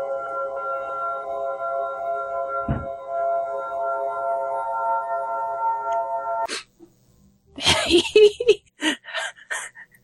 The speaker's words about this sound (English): Uh, that's the furnace just kicked in. Is it loud? Kind of. Kind of. I could shut it off when we do the actual podcast so it doesn't kick on for it right there.